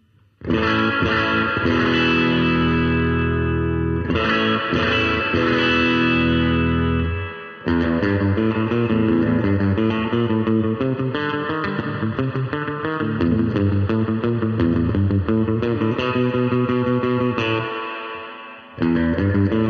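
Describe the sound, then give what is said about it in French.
A loud electric guitar played on its humbucker pickup plays a pseudo-surf riff drenched in spring reverb turned all the way up, strummed chords and twangy notes ringing out alone, with a couple of brief breaks before the phrase resumes. “personnellement, je suis rarement très très emballé par les réverbes à ressort, mais là, même au taquet, il y a quelque chose euh, d'assez inspirant qui fait que ça fonctionne.”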